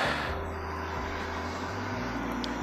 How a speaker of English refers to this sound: fucking truck.